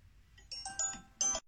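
A phone ringtone plays alone as calls and WeChat messages come in one after another: bright electronic chime notes rising out of quiet in three quick melodic bursts, the last one loudest, with no voices.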